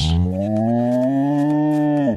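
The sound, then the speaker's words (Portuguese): A cow in India lets out one long, loud moo lasting about two seconds, a steady low bellow that rises slightly in pitch before cutting off abruptly, with no talking. “Calma, entrou uma vaca.”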